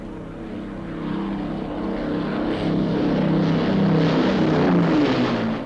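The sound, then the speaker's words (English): A propeller plane with two engines out of action drones steadily overhead as it heads back to Oakington Airport, its engine hum holding a low harmonic tone that slowly shifts pitch as it passes, fairly loud with no voices. “So, with two engines out of action, the plane carrying the Dreisenberg ambassador and the stolen computer is heading back to Oakington Airport.”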